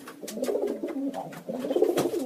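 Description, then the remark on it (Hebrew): A pigeon coos, a soft, throaty warble repeating in rolling pulses with a brief pause midway, with no voices alongside. “והוא יום אחד אה, קם בבוקר והוא רוצה ללכת להשתין, והוא לא יכול, כי על סף הדלת עומדת יונה.”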